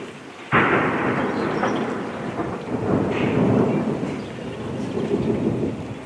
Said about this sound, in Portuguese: Ouvimos aqui em fundo uh, o som de explosões captadas esta segunda-feira, precisamente nessa fábrica de Azovstal, que referias, uh, o último reduto do batalhão Azov.